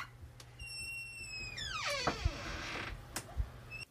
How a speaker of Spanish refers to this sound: El cura abre la puerta.